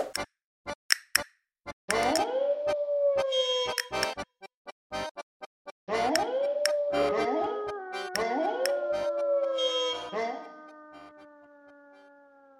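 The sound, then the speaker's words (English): Wolves howl in long, wavering, rising-and-falling cries, first a single howl and then several overlapping voices in a chorus, with sharp percussive taps scattered between them. “Well, the movie I was looking for is Dances with Wolves.”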